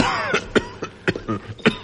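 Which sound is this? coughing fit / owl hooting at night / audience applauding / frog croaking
coughing fit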